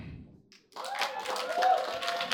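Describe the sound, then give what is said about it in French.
After a brief quiet start, an audience bursts into steady applause in answer to a question asking who lives in a shared flat; the clapping continues to the end, dense and fairly loud, with some voices cheering or calling out. “Oui, euh, ouais, euh, ben dans le fond, euh, par applaudissement, ici, qui est en colocation?”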